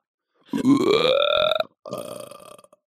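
A long, loud burp with a rising, croaky tone, followed after a brief pause by a second, shorter belch, with no talking.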